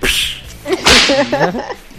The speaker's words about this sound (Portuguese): Olha o chicote aí, ó.